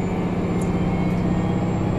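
A train running along the rails of the Nemuro Main Line and Sekisho Line between Obihiro, Shintoku and Minami-Chitose in Hokkaido, Japan, heard as a steady, loud low rumble with a faint rhythmic pulse and a thin high whine above it, continuous throughout with no one speaking.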